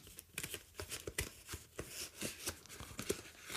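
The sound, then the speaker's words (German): Crunchy snips and scraping as scissors cut open the stiff cardboard original packaging of a Fitbit One activity tracker, a steady run of short rasping strokes with no voices. “Nein, jetzt kann ich hier mit der Schere rein.”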